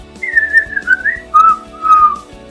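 person whistling a melody

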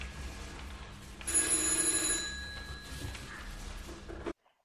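telephone ringing

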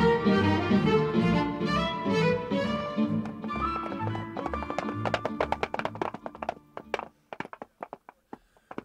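horses' hooves clip-clopping

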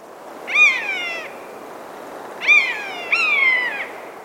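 common buzzard mewing call

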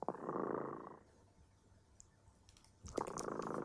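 cat purring

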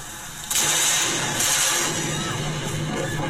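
lightning strike thunder boom

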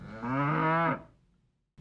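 cow mooing

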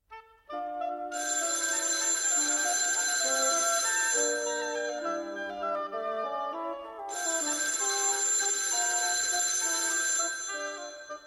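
telephone ringing

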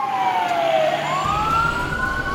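ambulance sirens

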